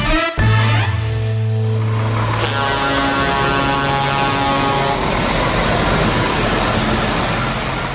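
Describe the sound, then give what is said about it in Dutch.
A heavy diesel truck engine rumbles loudly, a deep steady drone with harmonic growl that revs briefly at the start, then settles into a rough continuous idle-like roar. “Uh, ronkende dieselmotoren of benzinemotoren van eh, vrachtwagens.”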